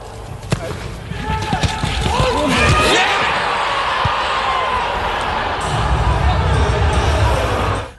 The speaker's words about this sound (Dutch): Maar hier is wel een gemis aan publiek zeer aanwezig. Want je hoort wel hoe een goal valt. maar je hoort geen publiek. En je hoort hoe die erin gaat.